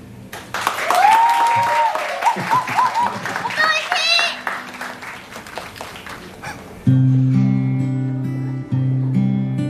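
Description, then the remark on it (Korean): An audience claps and cheers for several seconds for a stand-in singer, with high children's voices shouting over the dense patter of hands, before a steady, loud instrumental tune begins and takes over. “박수 한번 주시면 용기 내서 한번 불러보겠네요.”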